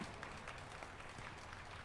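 Steady applause from people on balconies after a couple is married, a dense continuous patter of many hands clapping, sustained evenly without pause or voices standing out.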